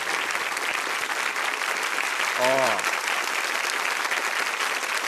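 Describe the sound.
Steady applause from a crowd clapping continuously for about five seconds, dense and even in loudness, with a single brief vocal exclamation cutting through midway.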